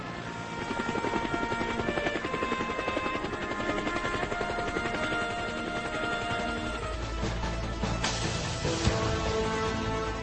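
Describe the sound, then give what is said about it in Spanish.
A Bell UH-1 military helicopter flies by, its rotor thudding in a steady rapid beat under a constant engine whine, loud and sustained throughout with a brief surge near the end. “Sin embargo, nada era más apreciado por las tropas americanas que luchaban en zonas pantanosas o parajes similares que el Bell HU-1.”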